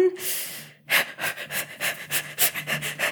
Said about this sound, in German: so atmen, weil dann ähm, krieg, also dann kann, kann ich zumindest das Kalt irgendwie besser ähm, aushalten und ich fange eben dann auch so zu atmen, also mit viel Sauerstoff einatmen, ähm, fange ich meistens dann schon an, als es noch warm ist damit